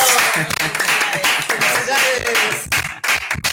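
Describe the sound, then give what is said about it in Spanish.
A crowd breaks into loud, sustained applause, a dense wash of many hands clapping without pause, with some indistinct voices rising through it and a few sharper claps near the end. “Una bendición que Dios te bendiga y un fuerte aplauso.”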